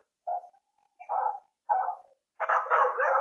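Dogs bark in short, spaced bursts, three separate barks followed by a longer, overlapping flurry of barking as more dogs join in, moderately loud with no talking.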